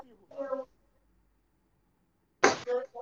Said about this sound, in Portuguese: Tá, você espirra. Fala fake, mas você espirra. Não, não, não é bem fake, é, é só porque alguém tá falando de mim.